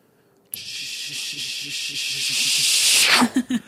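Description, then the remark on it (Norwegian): A 29-year-old man imitates rain with a loud, steady hissing shush from the mouth, held for about two and a half seconds over a faint voiced murmur before cutting off abruptly. “Eh, jeg vil at du skal parodiere lyden av regn.”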